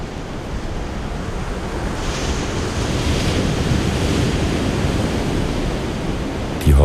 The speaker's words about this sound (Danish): Det er næsten vindstille. Alligevel er der store bølger, der brede og mægtige kommer rullende ind mod land.